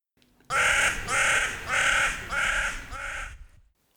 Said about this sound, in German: Die Krähen, ja, finden nicht alle lustig. es ist ganz spannend, das haben wir auch bei den Kreisverkehren, da lernen sie ein paar Krähen das an, dass man da das rausrupfen kann.